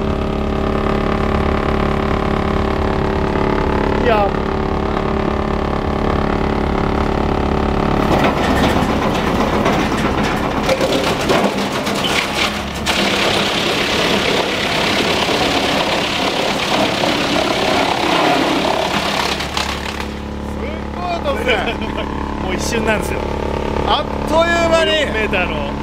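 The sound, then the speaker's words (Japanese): A sawmill sorting machine grinds through 4-metre cedar logs about 10 to 15 cm thick with a loud, continuous mechanical roar, harsh crashing and splintering bursts rising in the middle, while people talk briefly over the din. “選別機ですね、これがまあ大体10 15センチぐらいの4メーターの杉、はい、杉の丸太、はい、あ光が目を覚ましてすごい音なんでは”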